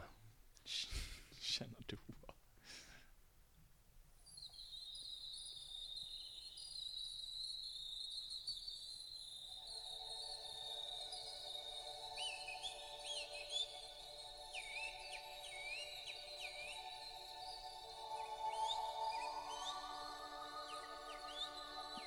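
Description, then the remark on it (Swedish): A man whistles chirping, trilling birdsong imitations over a steady sustained drone in an ambient-style music track, making nearly all the sounds of the music himself, after a few brief knocks at the start; the whistled calls repeat in short bursts and stay fairly loud throughout. “Och han, det fantastiska är då att han visslar och gör nästan alla ljuden i musiken.”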